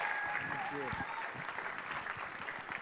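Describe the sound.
Steady audience applause, a dense wash of many hands clapping throughout, with a brief voice or cheer rising over it near the start.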